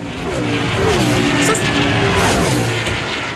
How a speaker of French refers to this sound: je pense vraiment vraiment qu'on peut s'en passer du Grand Prix puis des sons de moteur? Les a tu nos sons de moteur, là?